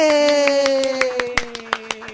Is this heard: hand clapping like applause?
yes